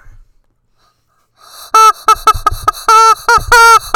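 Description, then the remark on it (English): A rubber chicken squawks repeatedly in loud, honking bursts after a moment of silence, the shrill squeezed cries coming in an uneven series. “I think I'm gonna go in the other room and play with my rubber chicken.”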